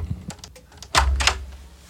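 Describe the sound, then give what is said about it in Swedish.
A few light, quick knocks on a door during a recording session, followed by a louder, heavier thump and another sharp knock, with no one speaking. “ja, det är lite irriterande tycker jag när folk under vår inspelning bara knackar på utan någon.”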